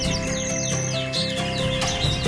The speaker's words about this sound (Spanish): Y también en las tribunas los pájaros formaron algarabía